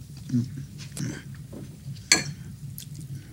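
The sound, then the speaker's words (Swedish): Someone crunches on crackers: a few crisp, crackly bites at irregular intervals, the sharpest one midway, over a soft low murmur of background voices. “Äter jag kex, säger jag då.”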